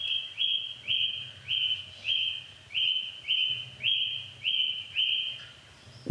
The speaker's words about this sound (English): So as we would put contact microphones on a, a metal gate, we could still hear the thrush wootling through the metal.